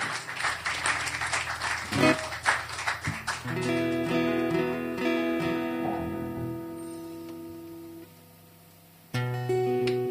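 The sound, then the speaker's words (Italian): An audience at the Salotto di Mao claps loudly for a few seconds, a dense burst of applause that quickly fades as sustained music of the final piece begins and carries on to the end. “Un grande applauso e grazie ancora di questa opportunità.”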